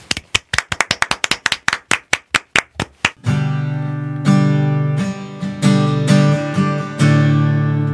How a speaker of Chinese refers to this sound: 好的，我们为他鼓掌，好吗？